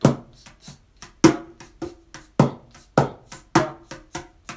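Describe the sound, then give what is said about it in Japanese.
A mini cajon played by hand in a steady 16-beat shuffle drum beat as a practice exercise, deep booming bass-drum strikes alternating with lighter, snappier snare-drum slaps, fairly loud with no one talking. “ミニカホンを叩いてみた”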